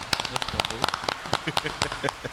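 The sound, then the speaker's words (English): A burst of crowd applause, triggered by a button, plays for a couple of seconds: dense, irregular crackling claps of fairly even loudness, like a canned clapping sound effect. “can you give yourself a round of applause with the with the button right there?”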